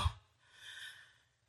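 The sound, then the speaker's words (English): A short thump is followed by a deep, breathy inhale of a person gasping for air that swells and fades over about a second, with no talking. “Inhale.”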